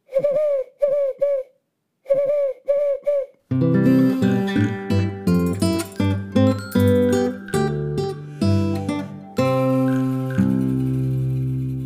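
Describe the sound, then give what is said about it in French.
An owl hoots in two quick sets of three clear, hollow calls with a short pause between them, then a burst of music takes over for the rest. “Pourquoi les chouettes font « Ouh Ouh Ouh ! »”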